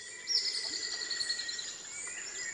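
An ornate antwren sings a thin, high, delicate song of rapid notes a few metres away during the morning chorus, over a steady background of insects buzzing, with no voices present.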